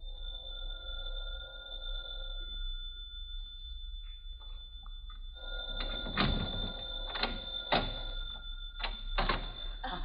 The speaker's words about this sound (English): Just a minute, there's the phone. Sit down while I answer.